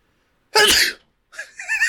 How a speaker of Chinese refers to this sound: 好，还是我们这集就在这个喷嚏声中画下句点。